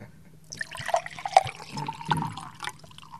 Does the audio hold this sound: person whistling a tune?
no